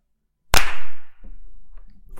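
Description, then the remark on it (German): One sharp, loud clap of several hands striking in unison, ringing briefly before fading into faint murmuring and low shuffling sounds. “gleich gut ist wie das Klatschen, dann haben wir gewonnen.”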